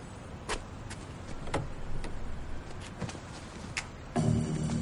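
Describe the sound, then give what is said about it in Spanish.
A man in glasses unlatches and swings open the front passenger door of an SUV stopped at night on a street in front of a hotel; a few sharp clicks and clunks over a steady low engine-like hum, then a fuller rumble as the door opens. “El hombre de las gafas baja, abre la puerta del copiloto.”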